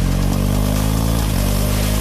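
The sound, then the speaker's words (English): A motorcycle engine rumbles loudly, its deep, steady idle rising slightly in a brief rev, with no voices present. “That sound you hear is the road calling you back, and it's time to answer.”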